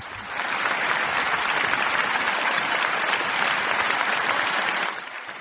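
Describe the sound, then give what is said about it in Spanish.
A crowd applauds steadily, a dense, even wash of many hands clapping with a man's voice saying "wow" in it, that swells in quickly, holds at a strong level for several seconds, then drops off slightly at the end. “Seguid aplaudiendo, por favor, sí, aquí que los tengo contratados.”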